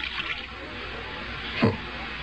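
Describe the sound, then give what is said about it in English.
Tap water runs steadily into a glass test tube holding a small amount of green powder, a continuous hiss and splash with a brief louder gurgle near the end. No one speaks. “Now we hold the tube under the tap and see what effect is caused by water.”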